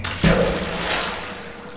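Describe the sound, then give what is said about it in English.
A single soft thud and splash of small stones and clumps of snow dropping into water in a cave with each step, followed by a lingering wash of noise. No voices. “Every step you hear little stones, little pieces of snow fall into the water.”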